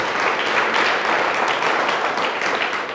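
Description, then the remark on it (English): A church audience applauds two worship songwriters after their song, a dense, steady wash of many hands clapping at once, loud and even for the full three seconds with no voices standing out. “Can we give them a round of applause for listening to what God has to say?”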